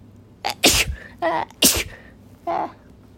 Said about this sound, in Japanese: 失礼しましたくしゃみ出たわ